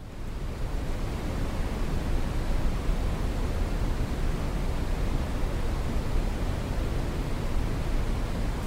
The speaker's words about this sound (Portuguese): Só que uma nova modalidade desse tipo de som ganhou o TikTok. É o ruído marrom ou mais conhecido por lá como brown noise. É esse barulho aqui, ó. Escuta aí.